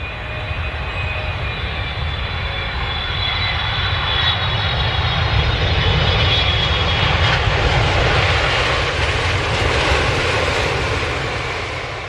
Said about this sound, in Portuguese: É, gente, ouvir esse sonzinho aí da turbina do avião tá ficando difícil, viu?